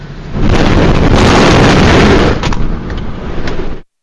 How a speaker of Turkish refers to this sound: Olay Ağustos ayında Kocaeli Derinceki Toprak Mahsulleri Ofisi'nde meydana geldi. Silolara gemiden tahıl yüklemesi yapıldığı sırada büyük bir patlama oldu.